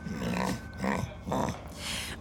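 A dog growls in three rough, rumbling bursts, each about half a second, followed by a softer breathy snarl at the end.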